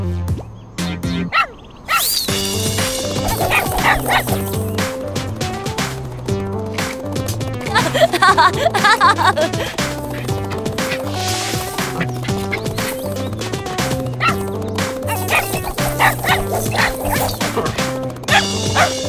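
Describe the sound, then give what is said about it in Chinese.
A dog named Torch (火炬) barks and yips repeatedly in short, sharp bursts, with some higher whiny yelps, over a steady, busy background of tonal sound that runs throughout. “火炬，傻狗！”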